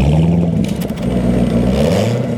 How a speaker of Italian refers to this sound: C'è un bel podcast in cui c'è il sommelier dei motori mm-hmm. che in ogni puntata ti fa, ti fa ascoltare il suono della Maserati.